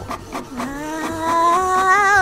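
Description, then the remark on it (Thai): A printer feeding out a sheet of paper printed with text typed on a computer: a few quick mechanical clicks, then a steady motorized whine that climbs gradually in pitch and grows louder, with no voices. “นี่ไง เราก็พิมพ์ข้อความในคอมพิวเตอร์นี่ไง อ่า จากนั้นก็กดสั่งพิมพ์ออกมา ทีนี้แหละ เดี๋ยวเธอคอยสังเกตกระดาษที่จะออกมาจากเครื่องพิมพ์ดีๆนะ”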